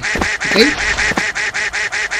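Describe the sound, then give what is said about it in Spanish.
A video game duck quacks rapidly and repeatedly as it runs toward a wooden bridge over a gap, a steady run of short, evenly spaced nasal bursts at moderate loudness, with a brief extra squawk near the start. “Ahí viene el pato, ahí viene, viene.”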